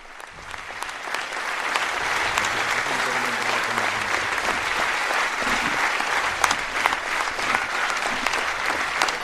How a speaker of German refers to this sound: Der Applaus hält immer noch an. Inzwischen sind auch alle aufgestanden.